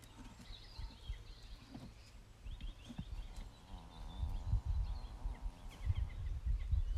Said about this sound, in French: Et on peut même sentir et entendre qu'un cheval se détend bien.